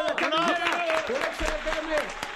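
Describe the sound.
Audience applause, a brisk patter of many hands clapping that holds steady and fairly loud, mixed with a sustained melodic tone like music or voices running underneath.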